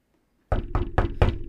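household object, knocking on a door

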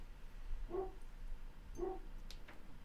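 animal, dog barking

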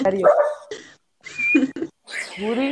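animal, small dog barking

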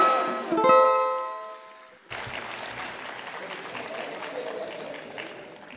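crowd, audience applause

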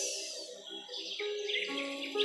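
bird, birds singing

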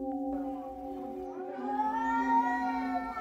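animal, angry cat yowling

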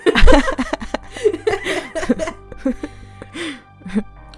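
human body sound, cough

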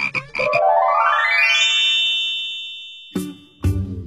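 animal, frog croaking

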